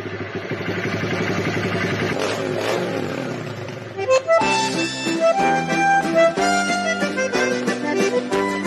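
A motorcycle engine rumbles and revs for about four seconds as a rider from Montenegro, Rio Grande do Sul, arrives with his girlfriend riding on the back, then gives way to lively band music with bright, steady melodic notes.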